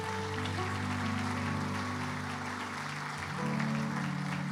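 A church audience claps steadily and loudly throughout, applauding God for the life of a church member, a dense wash of applause layered over sustained organ-like keyboard chords that shift to a new chord near the end.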